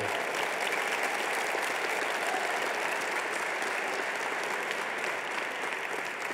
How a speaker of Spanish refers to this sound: Vamos, aplaude fuerte.